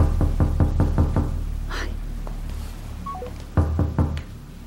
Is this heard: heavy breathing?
no